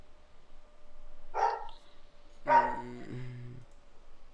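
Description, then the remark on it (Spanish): A dog barks twice, about a second apart, the second bark longer and trailing into a whiny, harmonic yelp. Fairly quiet, with no talking over it. “Y ese perro.”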